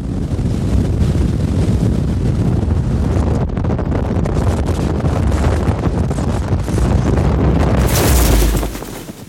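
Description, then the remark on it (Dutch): Loud, continuous roaring wind from the speed of a skydiver's free fall buffets the microphone, a dense low rumble with hiss on top that stays steady for several seconds before surging brighter near the end. No voices. “Nou ja, als je springt, dan hoor je alleen maar wind. Dat komt door de snelheid eh, dat jij valt.”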